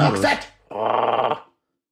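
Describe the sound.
A man's voice imitates a dog, giving a short rough bark followed by a sustained gravelly growl, loud, lasting about a second and a half.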